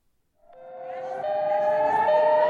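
An air raid siren in Ashkelon, Israel, sounding as Iron Dome interceptors intercept Palestinian rockets fired by Hamas, winds up from silence into a sustained, steady wail, its tone rising slightly and growing louder, with a low rumble of background noise beneath.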